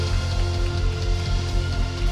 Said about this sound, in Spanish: Tiene un fuerte aplauso.